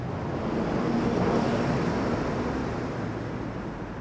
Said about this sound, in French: Tunnel de la friche de la Belle de Mai à Marseille, il est 17h30, les piétons se frôlent sur le petit trottoir d'un des côtés du tunnel et les sons du trafic, voitures, motos, bus, se réverbèrent sur les parois.